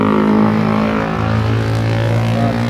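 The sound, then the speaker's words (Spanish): A loud motorcycle engine roars, a steady, throaty drone whose pitch shifts slightly partway through as it goes by. No one speaks over it. “Fuerte la moto.”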